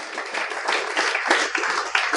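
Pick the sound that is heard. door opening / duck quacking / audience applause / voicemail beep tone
audience applause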